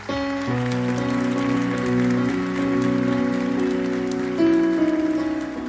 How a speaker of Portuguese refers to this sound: Vamos aplaudir Jesus por isso.